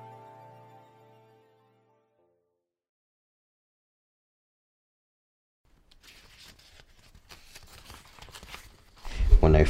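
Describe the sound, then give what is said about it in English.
Rustling and crinkling of paper being handled and folded, starting after a quiet pause and growing louder, ending in a sharper burst of crackles. “I usually try and find the center and fold from there. Byron Au Yong folds paper.”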